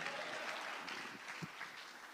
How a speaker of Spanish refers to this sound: ¿Cuántos dicen gloria a Dios y le da palmas al Rey de la Gloria? A su nombre.